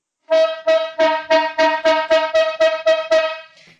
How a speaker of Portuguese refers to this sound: Corneta aleatória